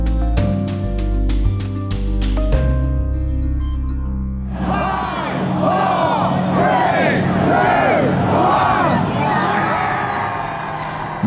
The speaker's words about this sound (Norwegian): Nedtelling til brexit i går kveld. Dette er britenes første dag utenfor EU på 47 år.